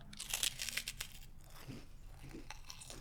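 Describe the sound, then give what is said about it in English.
Someone bites into a crunchy marshmallow puff snack: a burst of crisp, crackly crunches in the first second, then softer intermittent chewing crackles, with no talking. “I'm going in for another bite.”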